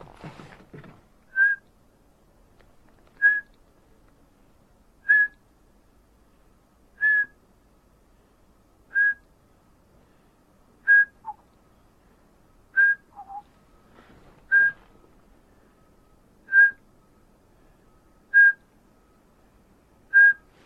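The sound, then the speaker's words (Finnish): A whistled call blown through lips pursed into a funnel with hands cupped like a horn, aimed toward Ahvelanmen into a slight headwind: about eleven short, clear notes at one steady mid pitch, evenly spaced roughly two seconds apart, with no other voices. “Mä otan tuonne Ahvelanmen suunnalle, mä otan hanskat, nämä valtavat hanskat pois kädestä, laitan ö, huuleni tötterölle ja siihen vielä nämä käpäläni ö, ikään kuin torven suunnaksi sinne uuden pikkusen vastatuuleen”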